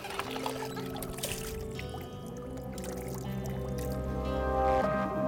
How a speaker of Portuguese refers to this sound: Eles fazem a instalação de um tipo de bomba num sistema arcaico, utilizado muitos e muitos anos atrás, para retirar a água. A água que eles usam para beber, cozinhar, para lavar a casa. E retiram a água do poço assim, nesse sistema.